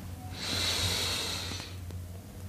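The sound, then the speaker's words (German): A single slow, deep breath drawn in during a guided breathing exercise, an airy hiss swelling for about a second before fading into quiet with a low background hum. “Wir nehmen zusammen einen tiefen Atemzug und atmen ein.”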